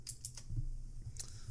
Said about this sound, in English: And if you guys hear typing in the background, I'm kind of sorry about that. It's my keyboard.